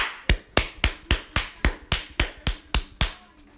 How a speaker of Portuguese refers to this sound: Um aplauso, um aplauso, um aplauso.